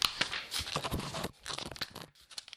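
Newspaper pages being flipped excitedly while searching for an article, a quick run of crisp rustling and crinkling bursts with a brief pause partway through. No voices are heard.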